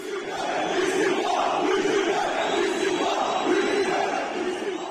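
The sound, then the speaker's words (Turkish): A large crowd shouts "istifa" (resignation) in unison, a steady roar of many voices rising and falling in rhythmic waves of chanting, loud and continuous throughout. “O yüzden az şey değil bunca tehdide rağmen istifa diye bağırabilmek.”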